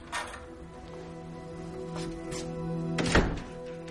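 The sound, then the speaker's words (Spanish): A house door shuts with a solid thud near the end as a woman arrives home, after a couple of fainter knocks and rattles, all over a steady low electrical hum. No one speaks. “De pronto escucha el ruido de la puerta.”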